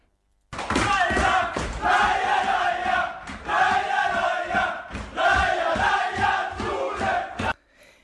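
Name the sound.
crowd cheering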